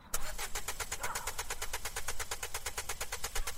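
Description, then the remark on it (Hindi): A car engine sputters and chugs in a fast, steady rhythm of loud pulses as the car suddenly stops on its own while being driven, with no voices. “गाड़ी एकदम से रुक जाती है क्या हुआ”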